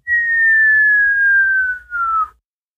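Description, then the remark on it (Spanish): A single loud whistle slowly descending in pitch for about two seconds as a gourd filled with burning oil falls through the air, landing a few meters away, with a brief break near the end and a low rumble underneath. “Y a escasos metros de ti, lo que cae es una de esas calabazas llenas de algún tipo de aceite encendido.”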